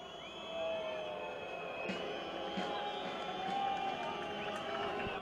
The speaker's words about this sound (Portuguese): E mas... neste minuto a URT entra em campo. Vamos ouvir aquela vaia?